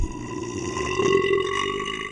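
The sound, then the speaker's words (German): A single long, loud burp rumbles steadily for about two seconds, deep and throaty with a rough, vibrating tone, with no talking. “der rülps rekord in der Disziplin Lautstärke ist mit 109,9 Dezibel im Guinness-Buch der Rekorde vermerkt”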